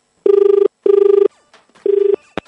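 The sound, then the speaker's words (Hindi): A telephone ringback tone pulses three times as a call is placed to the BMC municipal office, each steady buzzing burst about half a second long with short gaps, loud, ending with a faint click as the line connects. “तो सीन ये है कि भाई हमने बीएमसी वालों को फोन किया कि सर मतलब आप वाकई वीकेंड पे काम करने आ रहे हो क्योंकि वीकडे पे तो इतना करते नहीं हो”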